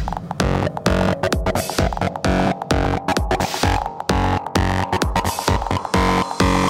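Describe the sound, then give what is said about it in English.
Loud, heavily distorted electronic music pounds in a steady rhythm, its gritty, saturated bass and harsh buzzing layers filling the whole mix with no voices. “Okay, now we need some fat distortion.”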